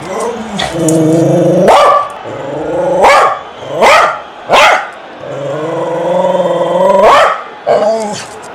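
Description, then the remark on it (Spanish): A small female dog growls and snarls in long, rumbling stretches, breaking into several sharp, loud barks in between, with no one talking over it. “¿Cómo caza la perrita, amigo?”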